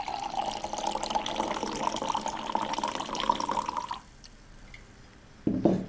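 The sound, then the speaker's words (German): Fruit cider (Most), a blend of 80% Oberösterreicher and 15% Schweizer Wasserbirne pears, pours steadily into a glass for about four seconds with a splashing gurgle. It stops abruptly, followed by a brief quiet pause and a short louder sound at the end. “So, jetzt habe ich den äh, sogenannten Birnenkiwi Ihnen eingeschenkt und man hört bereits am Geräusch schon, er lädt richtig zum Genuss ein.”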